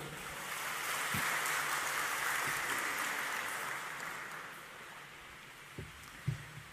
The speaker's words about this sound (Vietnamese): à, à, tăng đoàn và các quý phật tử thấy rằng là việc phát triển cái đầu sáng tạo và cái đầu phụng sự nhân sinh cho tinh thần bồ tát đạo đó là phù hợp với tâm quyền của mình và mình có thể làm được thì hãy dâng cao tràng pháo tay để phát nguyện